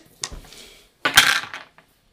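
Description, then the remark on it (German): Dice clatter across a hard surface in two quick bursts, a short rattle followed by a longer, louder tumble of clicks that settles into silence, with no talking. “Ja, ihr könnt ja rein theoretisch mal auf, vielleicht nochmal alle auf Science würfeln.”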